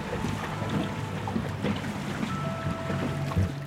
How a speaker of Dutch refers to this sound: We stuiteren over het water richting het eiland.